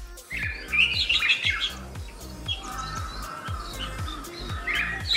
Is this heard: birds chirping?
yes